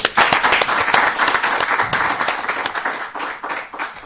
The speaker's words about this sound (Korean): 아무튼 뭐 네, 자축할 아무튼 일입니다. 네, 고맙습니다. 감사드립니다. 다시 한 박수.